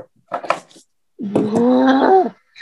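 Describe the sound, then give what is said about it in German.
A dog lets out a drawn-out, tonal growl lasting about a second, fairly loud, preceded by a short scuffling burst of noise. “mein Hund ist so nervig.”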